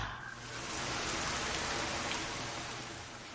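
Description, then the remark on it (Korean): Sudden, steady rain pours down in Jeju as bad weather delays flights, a dense, even hiss of drops spread across the whole range, holding at a constant level for a few seconds with no voices. “근데 갑자기 막막 비가 오더니 기상 악화로 비행기가 지연되면서”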